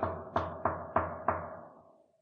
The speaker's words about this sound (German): Ich, ich klopfe mal. ich klopfe mal.